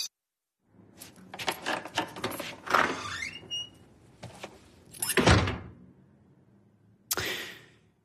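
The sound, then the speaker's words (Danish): A door rattles and creaks on its hinge, followed by a heavy thud and then a final sharp slam as it shuts, fairly loud, with no one speaking. “Ja, vi lukker døren til Zimbabwe, og så skal vi videre.”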